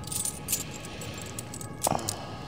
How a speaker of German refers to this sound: Ich glaube, der passt hier nicht, der Schlüssel. Ich schau mal nach.